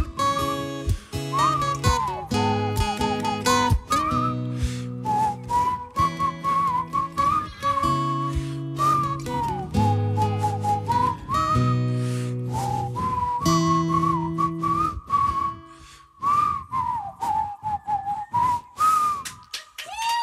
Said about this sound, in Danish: Fløjt lige sammen med os nu. Er I klar for det?